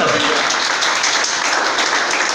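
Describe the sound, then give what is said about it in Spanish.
A church audience breaks into loud, sustained applause for the Lord one morning, a dense wash of many hands clapping steadily without pause for the full stretch. “Denle el aplauso al Señor, por favor, fuerte esta mañana.”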